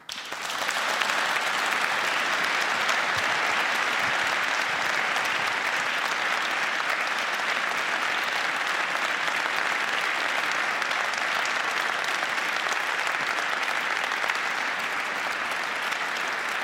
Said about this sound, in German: Danke, dass Sie Lust an der Diskussion über das eigene Buch hatten und dass Sie sie auch ausgehalten haben. Dafür Ihnen ein besonderer Applaus.